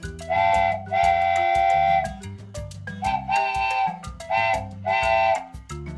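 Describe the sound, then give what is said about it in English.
A train whistle from a boy's trains he is playing with at home sounds in a series of blasts, one short, one long, then several shorter toots, over a steady musical backing with low bass notes. “Pete starts to play with his trains.”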